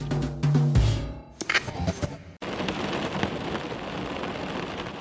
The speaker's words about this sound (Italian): Quanto è bello essere in macchina e sentire il ticchettio della pioggia sul parabrezza. È rilassante l'acqua che si accumula sul vetro. E poi, con un colpo d'ala, via, sparita.